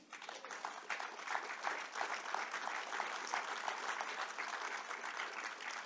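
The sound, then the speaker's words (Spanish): Sustained applause from an audience for writer Fernando Durán Ayanegui, a dense crackle of many hands clapping at steady loudness for about six seconds, with no voices standing out. “Entonces un aplauso para don Fernando.”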